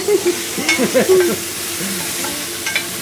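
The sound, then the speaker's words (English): Ginger sizzles as it is sautéed with chicken in a hot pan, with a steady, crackling hiss, while a few scraping stirs and utensil clinks sound over it in the first second and a half. “yeah, and like that and then I add the ginger.”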